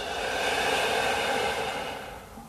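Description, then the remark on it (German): A long, slow breath out, the first deep breath of a guided meditation, a steady airy whoosh held for a couple of seconds before gently tapering off. Fairly soft, with no talking. “Und wieder aus.”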